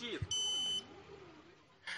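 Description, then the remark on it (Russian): A single loud, high-pitched electronic beep lasting about half a second from a man's mechanical leg, warning of low charge, with a voice talking underneath and continuing after it stops. “Вот, я говорил, что она пищит, она пищит”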